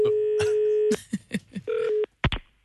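A telephone call being dialed to the Max hamburger restaurant to call in sick: a steady dial tone hums, then gives way to a quick run of short key-press beeps and tones, ending in a couple of sharp clicks. No one speaks.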